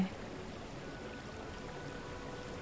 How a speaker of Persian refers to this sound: به صدای آبی که اطراف جاریه گوش بده